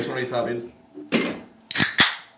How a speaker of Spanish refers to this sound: para la gente que no esté escuchando en Spotify y eso, estamos abriendo una cerveza, ¿vale? Esto va a ser. Esto es mejor que un vídeo SMR, poner esto en bucle